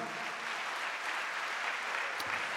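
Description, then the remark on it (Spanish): An audience applauding the Lord steadily, a dense, even wash of many hands clapping at once with no pauses, moderately loud throughout and no clear voices standing out. “Darle un aplauso al Señor, a su nombre, gloria.”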